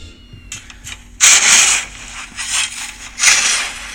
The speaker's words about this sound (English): Okay, so the answer to our, our last week's mystery sound was indeed something I don't do very often that my dad would never think I did was uh, snow shoveling. But I actually did have to do some snow shoveling.